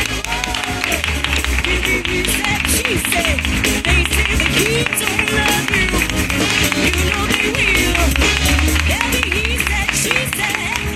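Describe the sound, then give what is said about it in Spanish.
A live audience at Café La Palma applauds steadily and loudly for about eleven seconds, dense clapping mixed with cheers and shouting voices throughout. “Un aplauso al público lunero.”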